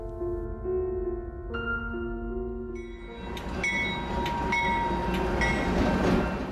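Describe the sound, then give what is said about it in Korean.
A train rumbles along the rails, a steady low roar rising as it passes, with bright metallic squeals and rhythmic clacks cutting through in the second half. “고향 가는 기차를 기다리고 있을 때였습니다.”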